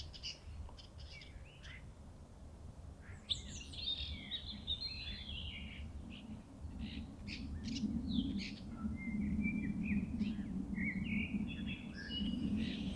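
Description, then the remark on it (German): Several birds chirp and tweet in overlapping bursts outdoors, some calls bright, over a steady low rumble of a passing airplane that grows slightly louder toward the end. “Und dann könnt ihr euch sagen, okay, ich konzentriere mich jetzt für die nächsten 15 Sekunden mal nur auf das Vogelgezwitscher.”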